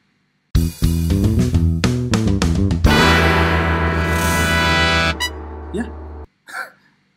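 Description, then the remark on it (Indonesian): A short, loud intro jingle of brassy, horn-like notes: a run of quick punchy hits, then a long held chord that cuts off, followed by a couple of faint trailing blips. “oke lah langsung intro aja”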